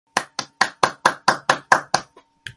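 Applause welcoming a guest, as a short run of sharp, evenly spaced claps, about nine in steady rhythm, then a faint clap and one last one after a brief gap. No voices.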